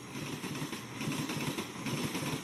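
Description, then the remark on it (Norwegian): A train travelling to Germany and France rolls along with a steady, low rumbling roar and a broad hiss above it, faint rhythmic pulses running through the continuous noise; no one speaks. “Nå tar vi toget til Tyskland og Frankrike.”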